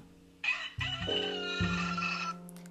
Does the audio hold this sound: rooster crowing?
yes